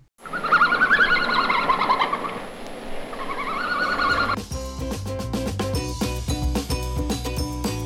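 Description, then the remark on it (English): A red panda gives a run of high, bird-like squeaks and twittering whistles for about four seconds, fairly loud, before music abruptly takes over. “But that was a red panda. That's right, this week's animal sound is, was a red panda.”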